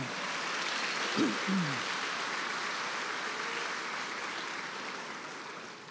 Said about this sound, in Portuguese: A casa de Deus, aplauda!